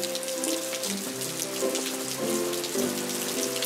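Steady patter of raindrops falling close by, a dense continuous drizzle of tiny taps, with soft sustained musical tones humming underneath.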